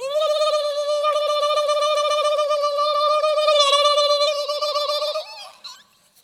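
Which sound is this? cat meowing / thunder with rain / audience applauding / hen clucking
hen clucking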